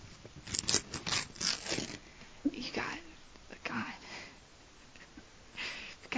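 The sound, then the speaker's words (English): Scraping and clicking as stuck scissors, about to be used to cut hair, are worked open in several uneven bursts, with soft whispering in between. “I, my scissors are stuck, so I'm just gonna”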